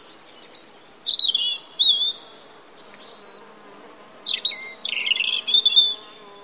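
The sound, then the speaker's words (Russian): A European robin sings alone: a few high, thin, liquid warbling phrases with trills and short pauses between them, clear against a quiet background. “А потом как будто бы из этого графина наливают в стакан воду. И получается такой буль-буль-буль-буль-буль льющийся звук.”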